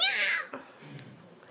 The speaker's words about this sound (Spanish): me acuerdo cuando mi tío pisó al gato, la cola del gato. Entonces el gato hizo